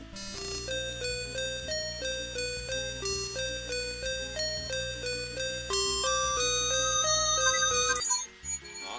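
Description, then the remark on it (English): A chiptune-style video game melody, the Southern Dream Shrine music from The Legend of Zelda: Link's Awakening, plays alone, bright square-wave notes stepping through a bouncy tune over a steady low bass pattern, ending with a brief burst of noise. “Was it the Southern Dream Shrine in Link's Awakening?”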